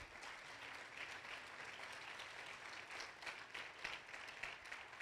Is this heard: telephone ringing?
no